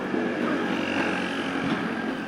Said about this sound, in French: Les scooters passent encore.